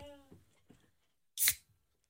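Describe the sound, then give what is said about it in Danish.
A bottle of soda water cracks open with one short, sharp fizzing hiss, fairly loud, after a brief bit of quiet voice and faint handling sounds. “Nej, må jeg åbne?”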